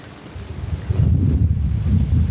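Strong wind buffets the microphone outdoors during a hike, a deep continuous roar that swells louder after the first second and keeps rumbling without a break.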